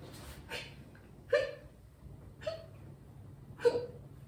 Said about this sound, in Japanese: しゃっくり止まらない。しゃっくりが100回出ると死ぬらしい。